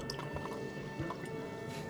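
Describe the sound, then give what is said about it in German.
Water pours steadily into a glass for about two seconds, an even liquid trickle with faint bubbling and small splashy drips, and no voices. “Noch ein Wasser?”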